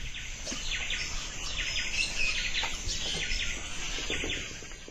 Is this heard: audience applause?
no